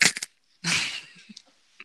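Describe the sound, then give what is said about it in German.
A loud, crunchy bite: a few sharp cracking bursts, then a longer crackling crunch that trails off into small scattered crackles, with no talking. “Das hat aber geknuspert, du.”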